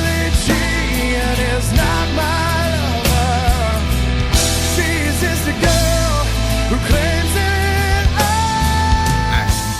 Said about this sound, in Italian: Sentite il ritornello, ditemi se non suona rock anche questa.